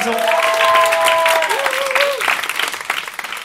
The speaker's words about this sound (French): S'il vous plaît, applaudissez-les parce que nous